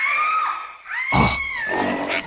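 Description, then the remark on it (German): A gorilla, King Kong, roars on Skull Island: a loud, rough, gravelly burst cuts in over a steady high whining tone, followed by noisy grunting that fades with another short rasp at the end. “Hab gar nicht mehr an den verflixten Gorilla gedacht.”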